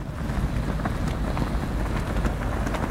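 A storm sound effect, turned up in volume: a steady, loud roar of storm wind fills the scene, with rushing, gusty noise and faint scattered patter of rain, continuous throughout without any voices.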